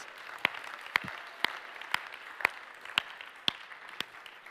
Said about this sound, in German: ja, geben wir einen Applaus.